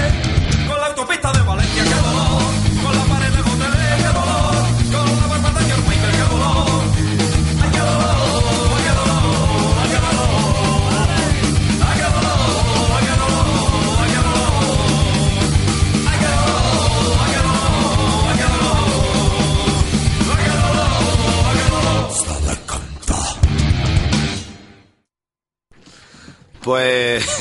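A loud punk rock cover song blasts with shouted vocals over driving drums and distorted guitars, playing steadily before abruptly cutting out near the end and briefly returning.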